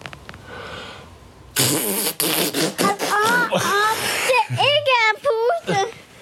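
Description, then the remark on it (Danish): After a quiet moment, a loud, buzzy raspberry is blown onto a scratched spot on skin, like a fart noise. A young child then whines and vocalizes with rising and falling pitch. “Skal jeg puste på det? Så puster jeg. Det kan godt blive sin prut.”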